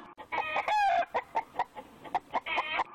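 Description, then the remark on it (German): Several chickens, carried on the handlebars of a motorcycle, cluck in quick, uneven bursts, with a rooster's strained crow rising briefly near the start, fairly loud with no voices present. “Da war nur eine Oma auf dem Motorrad unterwegs mit ein paar Hühnern auf dem Lenker.”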